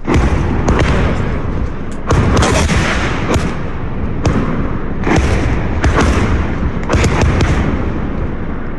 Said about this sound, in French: Je ne m'étendrai pas pour vous dire qu'il avait eu la peur de sa vie, mais qu'il avait pris son courage et sa caméra à deux mains pour nous montrer l'épouvantable réalité de la guerre et son fracas terrifiant.